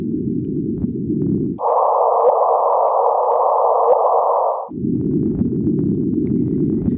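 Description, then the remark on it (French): A sonified gravitational-wave chirp from the LIGO Hanford and LIGO Livingston detectors in the United States: low, hissing rumble with a faint tone, then the same noise shifted higher in pitch, its frequency raised to be more audible, for about three seconds, then back to the low rumble. No talking. “Donc vous entendez deux fois les bruits. La première fois est à la bonne fréquence, la deuxième fois, ils ont augmenté la fréquence pour que ça soit un peu plus audible.”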